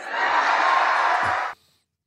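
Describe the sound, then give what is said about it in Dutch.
A packed hall audience at a Nikki Haley campaign kick-off cheers loudly, eager to hear her speak, a dense, steady roar of many voices holding at full strength for about a second and a half before cutting off abruptly. “Ja, je hoort het eh, gejuich daar al.”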